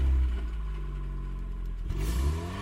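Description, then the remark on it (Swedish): A stolen Audi's engine hums low and steady, then revs up with a rising whine near the end as the car, packed with stolen goods, pulls away heading south out of town, fairly loud with no voices. “Susanne börjar köra ut från stan söderut”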